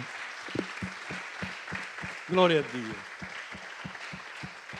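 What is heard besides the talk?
audience applause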